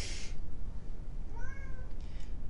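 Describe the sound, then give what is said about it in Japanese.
A cat lets out one drawn-out meow that rises and then holds its pitch, heard over a steady low background rumble, with a short hissy burst of noise just before it. “うわ大大大騒ぎしてますけどはいあっちから回ってあっちから回ってあっちから回って泣いてますね”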